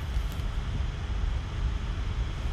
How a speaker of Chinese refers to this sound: 你的风扇声音太大了，风扇声音太大了。